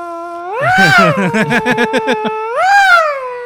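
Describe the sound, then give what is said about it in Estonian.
A voice imitates the yowl of an angry cat it faces off with at home: a long rising, wavering wail that breaks into a rapid series of choppy pulses, then swells into one more drawn-out yowl, loud. “kas te nagu vastamisi tegite seda häält kas sa olid ise valus talle sama?”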